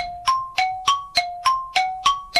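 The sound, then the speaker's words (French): A gong rings in a rapid, even run of eight bright metallic strikes, each leaving a short ringing tone, loud, with no voices, marking the end of a 10-second word-guessing round in a game. “Euh sur le gong, on l'accepte.”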